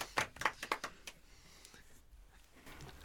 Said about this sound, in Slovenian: Ampak ja, tu jim res moram, ker zaploskati in vedno zaploskam, ko se o tem nekaj res. Pff. Bravo. Bravo.